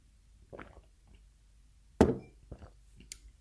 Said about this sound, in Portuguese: Deixem-me só beber um bocado de água.